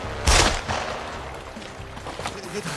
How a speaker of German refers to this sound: Haben Sie eben den Schuss abgefeuert? So ist es.